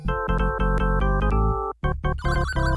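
A bright, synthesized arcade video game victory jingle plays loud: quick, evenly pulsed electronic notes, a brief break near the end, then a final flurry of notes. No one speaks.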